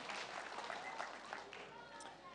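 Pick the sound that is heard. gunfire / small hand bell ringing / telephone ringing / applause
applause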